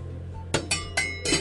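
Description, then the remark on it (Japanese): A small Geo Product 16 cm metal cooking pot clinks four times in quick succession as it is handled, bright metallic taps over a low steady hum, with no voices. Tap water has just been put on to boil in it for chai. “ジオプロダクトの16センチの小さい鍋を使っていますそこに今ねお湯を沸かし出したところです”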